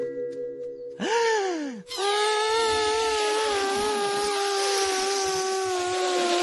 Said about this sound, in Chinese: 必须灌更多气进伸缩喇叭，才能把高飞推出去。